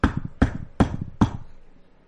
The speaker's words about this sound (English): But that would all change this morning in January. At 6 a.m., there are several loud knocks.